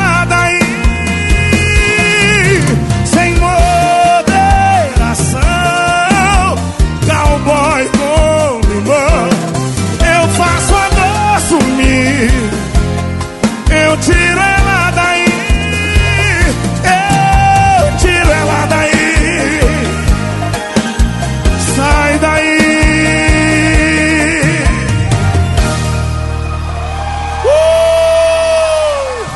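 A loud sertanejo song plays on the Sunday Legado Sertanejo program, with sung vocals over a full band, and a crowd cheering and whooping in the background as if recorded live.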